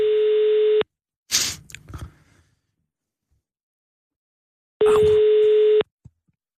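A steady electronic telephone tone sounds twice, each for about a second, with a burst of rattling handset noise between them and a faint click at the end, as a phone call is attempted. No one speaks.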